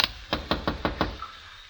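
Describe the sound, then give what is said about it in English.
Five sharp knocks on the front door of a house at 17 Sharia El Moor, late in the afternoon, in a quick, even rhythm and fairly loud, with a brief first tap before them and quiet afterward. “I ran up the walk, rapped on the door.”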